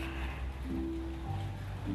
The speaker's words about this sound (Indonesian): udah hujan juga sih sebenarnya